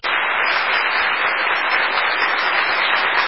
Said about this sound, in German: Oh, Applaus, Applaus, Applaus.